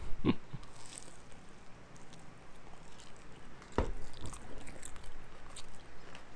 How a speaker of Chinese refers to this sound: 所以我真的超爱吃他们这个狗母鱼酥，对，讲到就要再再吃一口。